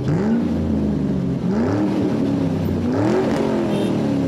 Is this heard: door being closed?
no